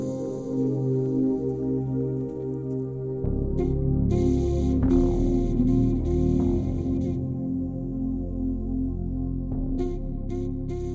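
Instrumental closing music for a programme plays on its own, with sustained, layered tones and a steady bass, swelling slightly partway through and holding an even, moderate loudness throughout.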